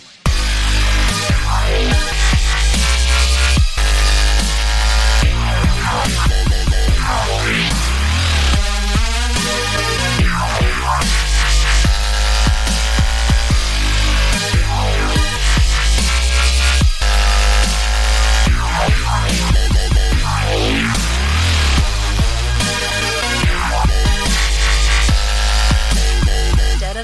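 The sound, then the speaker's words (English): Loud, heavy dubstep music plays continuously with booming sub-bass and a barrage of warping, sweeping, glitchy synth sounds shifting constantly over a driving beat, with no voices. “What we are gonna do this time, in light of recent trends in the heavy dubstep scene, is put about a million different progressively crazier sounds in.”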